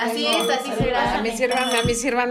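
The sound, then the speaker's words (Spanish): A few sharp clinks of drinking glasses touching in a toast, spaced irregularly, beneath steady overlapping talk from several people. “es de mala, mala suerte en, cualquier parte del mundo brindar con la copa vacía.”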